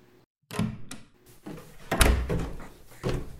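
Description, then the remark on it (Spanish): A bathroom door is handled and pulled shut as someone leaves the bathroom, with a rattle of the handle, a solid thud as it closes, and a final click of the latch. No one speaks. “Los tres elefantitos, empapados, la miraron salir del cuarto de baño y cerrar la puerta.”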